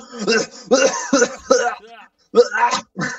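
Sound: coughing and throat clearing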